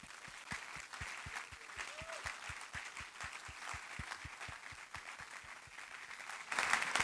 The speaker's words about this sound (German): Mit mir zusammen geben wir einen riesen Applaus.